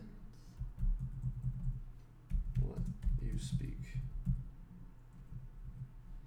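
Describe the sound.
Rapid, irregular clicking of typing on a computer keyboard the typist is still getting used to, fairly loud, with a voice speaking briefly alongside the keystrokes.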